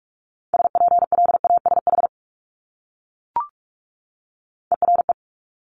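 Rapid Morse code at 45 words per minute at a steady mid pitch: a long burst of quick beeps, a pause broken by a brief blip, then a shorter cluster of beeps. No voices.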